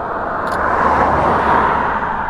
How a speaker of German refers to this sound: das kann eine kleine Störung sein, zum Beispiel wenn hier ein Auto vorbeifährt